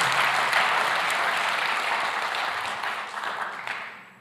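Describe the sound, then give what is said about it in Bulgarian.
A church audience claps together in sustained, dense applause, a steady wash of many hands that holds fairly loud throughout and eases slightly toward the end, with no speech over it. “О, хайде, ако вярваш в това, защо не му дадеш едно дарение на ръкопляскане?”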